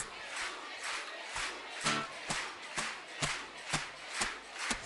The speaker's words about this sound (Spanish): Y vaya diciendo Jesús. Si quiere que la predicación comience más fuerte, diga Jesús con las palmas.